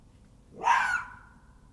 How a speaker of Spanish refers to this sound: Vamos a ver cómo suena el zorro macho.